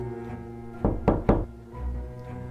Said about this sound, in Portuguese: três batidas, fortes, vindas diretamente do armário, reverberaram no quarto.